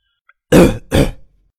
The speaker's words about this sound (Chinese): 江涛咳嗽了两声，掩饰刚才的失态。